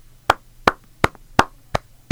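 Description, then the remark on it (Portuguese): Six sharp hand claps in a slow, steady rhythm, crisp, from what sounds like a single person, with only a faint low hum behind them and no talking. “O que, que eu vou dizer sobre isto aqui? Palmas”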